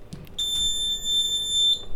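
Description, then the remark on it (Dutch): A loud, steady high-pitched electronic beep from a lab flow cabinet, a glass cabinet that creates an airflow for a sterile work environment, sounding as it is switched on, continuously for over a second after a few short clicks. “Nou, als we die aanzetten, dan geeft het een hele harde piep.”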